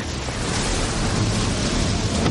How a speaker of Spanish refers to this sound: Grandes olas golpean la cubierta.